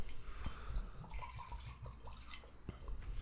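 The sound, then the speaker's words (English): Glenfarclas 21 whisky trickles and splashes into a glass in a short, steady, generous pour, with a few soft drips and small clinks. It sounds fairly quiet. “So this is a Glenfarclas 21. Oh, We're going to the 21. pretty good pour.”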